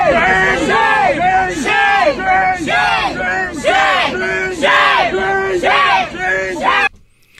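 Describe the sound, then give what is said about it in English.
A large crowd at a pro-Palestinian rally at Harvard yells "shame" at a Jewish student walking to class, over and over in loud, rhythmic unison, about a dozen shouts at a steady beat, dense, until the chanting cuts off abruptly at the end. “They're yelling shame at him because he's Jewish and he's just trying to get to class.”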